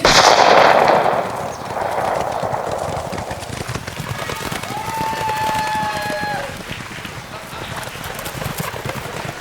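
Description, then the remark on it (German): A loud starting signal bursts out at a horse race, then many racehorses break into a rapid, continuous drumming gallop that carries on steadily, with a brief high tonal call rising over the pounding midway through. “Alle Pferde warten auf das Zeichen. Das Rennen beginnt.”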